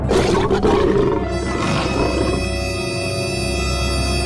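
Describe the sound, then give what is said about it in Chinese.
Lions and tigers roar loudly, deep growling roars overlapping into a continuous snarling rumble for about four seconds, with a rising, throaty cry partway through and no talking. “战斗民族要在街上放八百只狮子和老虎。”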